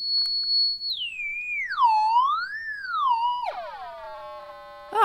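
A continuous electronic tone from a handheld device starts high and steady while held toward a lamp. As the device is moved away from the lamp, the tone slides down in pitch with wavering swoops before settling lower and buzzier, with no voices.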